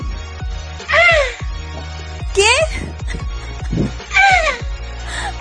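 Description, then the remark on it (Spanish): A voice imitates a turtle with three or four squeaky, cawing cries that swoop up and down in pitch, spaced about a second apart, fairly loud over a low background hum. “Pues es una tortuga. Mm. Es el sonido de las tortugas.”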